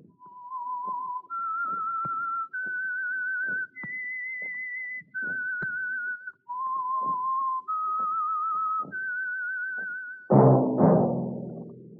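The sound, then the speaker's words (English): A lone whistled melody of about eight long, clear notes that climb and dip in pitch, steady, ending with a sudden loud burst of music; the whistle is the opening signal of the Signal Oil Program radio show The Whistler. “That whistle is your signal for the Signal Oil Program the Whistler.”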